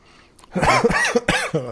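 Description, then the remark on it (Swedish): A harsh coughing fit, several rapid, rasping coughs in a row with strained throat sounds between them, loud and unbroken over about a second. “Ja, men den här jävla hostan alltså.”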